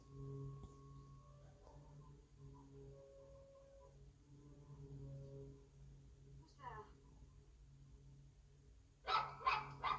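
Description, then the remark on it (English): A dog lets out a short whiny yelp, then a quick run of loud, sharp barks near the end, over a steady low hum with faint voices in the background. “Dogs just ran out of the house.”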